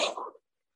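A single quick sneeze, a short hissy burst that fades within half a second, somewhat quiet and heard on its own with no talking around it.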